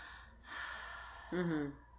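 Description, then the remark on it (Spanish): A deliberate deep breath demonstrated as breathing work: a long airy inhale lasting most of a second, then a brief voiced, sigh-like release, with no talking. “Por supuesto trabajar la respiración, o sea, el...”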